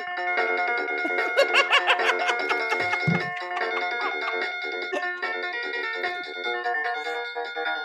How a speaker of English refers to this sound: What's the point of learning the keyboard when the demo's on there?